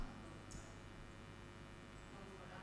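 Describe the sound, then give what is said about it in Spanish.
A steady, low electrical hum from an air conditioner drones on evenly throughout, with no speech and only a faint brief hiss partway through. “Ah, es que entre el aire acondicionado y eso la distancia.”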